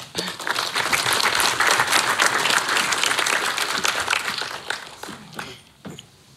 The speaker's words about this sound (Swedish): Välkomna. En liten applåd.